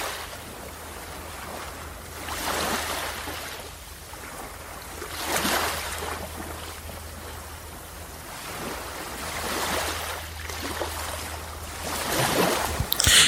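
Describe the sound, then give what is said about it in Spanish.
Ocean waves wash in and out in slow, broad surges, each swell of noise rising and fading every few seconds, with a steady breezy hiss and a low rumble underneath. No one speaks. “imagina el sonido de la brisa, el sonido de la ola, el sonido de las aves en este momento.”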